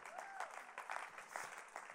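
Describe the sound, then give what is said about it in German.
Audience applause for the speaker's three-year-old daughter, a dense, steady patter of many hands clapping at moderate volume, with a few faint voices mixed in. “Applaus für meine Tochter.”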